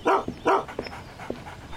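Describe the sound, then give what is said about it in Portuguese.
A stray mixed-breed dog following a person walking through a neighbourhood on a Saturday morning barks twice in quick succession, sharp, followed by a few softer yips and whimpers. “Pô, sai pra lá, cachorro. Sai, seu vira-lata.”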